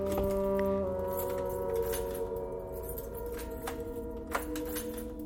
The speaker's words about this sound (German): Wieso passt dieser scheiß Schlüssel nicht? Der hat doch immer gepasst. Das gibt's doch wohl nicht.